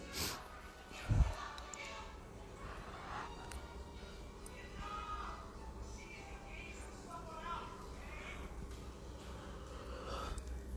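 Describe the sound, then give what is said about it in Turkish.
Several people yawning with long breathy exhales and soft vocal sighs, overlapping, with a brief low thud near the start and faint murmur throughout, during a group session. “Bol bol esnemeler, açılmalar.”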